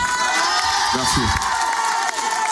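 A studio audience cheers and shouts loudly in a dense, sustained roar, with a few excited voices rising above the crowd noise throughout.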